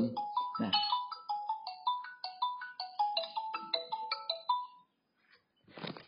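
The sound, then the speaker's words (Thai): A phone ringtone of an incoming call plays a bright, repeating electronic melody of rapid stepped notes for about five seconds, then cuts off; a brief burst of noise follows at the end. “ครับขอขอโทษนะ พอดีเขาโทรศัพท์เข้ามา”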